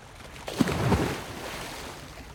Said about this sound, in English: There were any number of things going on around me that might have woken me, but nothing did until I heard an almighty splash somewhere to my side.